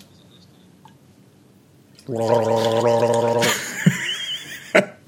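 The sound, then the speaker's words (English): A person gargles loudly in a steady bubbling burst lasting about a second and a half, imitating how a grime rapper sounds when rapping, followed by a few short vocal sounds and clicks. “He sounds like he's gargling him to me.”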